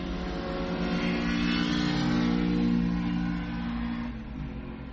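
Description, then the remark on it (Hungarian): A Honda Prelude car accelerates past, its engine roaring with a strong low hum that swells to a peak midway and then starts to fade, with no voices. “És ez nem egy motor volt, gyerekek, ez egy Honda Prelude volt”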